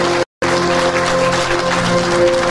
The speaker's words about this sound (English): There was that need. Yeah, clap for that. That's awesome.